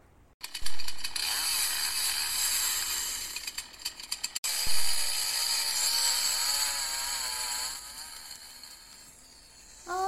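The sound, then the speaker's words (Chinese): Fox, the old fox of the story, saws wood with a loud, steady buzzing saw whose pitch wavers as it cuts, pausing briefly about halfway before starting up again; no one speaks. “他现在有袜子了，还在锯木头。”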